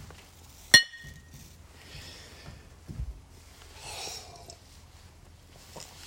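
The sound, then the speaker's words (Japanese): A single sharp glass clink from a toast with shochu rings out near the start, bright and ringing briefly, followed by quiet handling noises, a soft thump, and faint breathing amid an otherwise hushed quiet. “是非お好きな焼酎をご用意していただき一緒に乾杯しましょうでは焼酎で乾杯音がちっちゃい”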